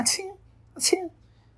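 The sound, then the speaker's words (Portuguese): A voice imitates a dainty little sneeze like some girls make, two quick breathy bursts with a soft squeaky vocal edge, fairly quiet, with a short pause between them. “Aí tem umas meninas que espirram assim.”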